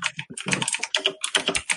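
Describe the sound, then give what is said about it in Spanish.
Rapid clatter of computer keyboard typing, a dense run of sharp key clicks in quick, uneven rhythm, fairly loud, with no voices. “El teclado satánico.”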